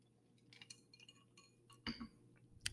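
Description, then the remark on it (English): Quiet clinks of a mug being handled, then a short sip of coffee and a final light tap, with no one speaking. “I'm gonna sip my coffee.”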